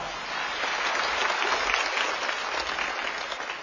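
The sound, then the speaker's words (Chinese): Sustained audience applause at a concert of the China National Radio Children's Choir, welcoming the choir's conductor onto the stage; a dense, steady wash of many hands clapping at an even loudness throughout, with no voices over it. “让我们掌声有请孟大鹏老师上场。”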